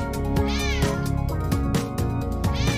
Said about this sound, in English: It's a cat party. Just me and 50 cats throwing it down, making all kinds of sounds. It's a cat party.